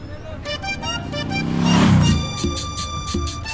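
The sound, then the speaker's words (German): A car passes on a road heading toward Uruapan in Michoacán, Mexico, its engine and tire noise swelling to a peak and fading, with a steady background of traffic and a faint tonal hum throughout. “Mit dem Auto Richtung Uruapan.”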